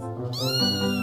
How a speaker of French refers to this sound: Oh, mais tu es tellement mignon, toi. Comment j'ai pu avoir peur de toi Viens là, petit chat. Viens là, mon petit chat. Viens, petit, petit chat. Maman, c'est un chat en fait.